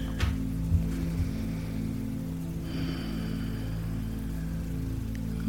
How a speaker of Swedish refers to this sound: Och hör du lite ljud så är det katten som spinner.